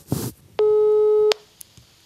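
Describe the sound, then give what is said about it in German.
A steady electronic telephone tone sounds once for about three-quarters of a second as a call is placed to an unknown number. It is loud and clear, bracketed by brief clicks, with faint line noise before and after and no one speaking. “unsere unbekannte Nummer äh, anrufen”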